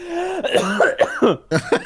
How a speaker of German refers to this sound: leid, dass ich huste. Ich habe aktuell einen äh, PCR-Test am Laufen. Äh, habe seit einer Woche Halsschmerzen und äh, seit Wochenende Husten.